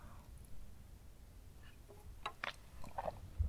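Someone takes a quiet sip of water: a few soft, wet mouth clicks and a swallow in near silence, with no talking.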